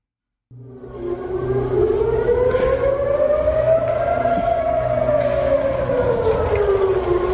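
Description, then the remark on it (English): An air raid siren in Tel Aviv starts abruptly and wails steadily, its pitch slowly rising and then falling in one long sweep, loud and sustained over a low rumbling background with no talking, as people run to shelters. “We are here in Siren in Tel Aviv, and you can see the people running.”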